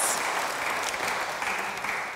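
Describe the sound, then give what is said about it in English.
A crowd applauds the actors steadily, a dense, even clatter of many hands clapping at once for the full couple of seconds, with no voices standing out. “Can we give a round of applause for our actors?”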